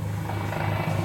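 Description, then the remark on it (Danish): A helicopter drones steadily overhead, its low rotor hum constant and fairly loud throughout the brief moment, with no voices present. “Prøv lige at åbne døren. Det er en helikopter, det der.”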